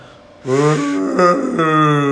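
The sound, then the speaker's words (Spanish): A person's voice imitates a whale call with one long, loud, droning moan, held steadily for nearly two seconds after a brief quiet start. “A, sonido de ballena.”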